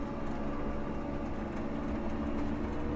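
A snow groomer's engine drones steadily, a continuous low rumble with a slight mechanical hum, unbroken and without speech for the whole stretch, as it nears the top of the Pettersson trail in snow.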